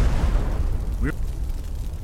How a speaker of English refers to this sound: It's not just fire; it's a fireball.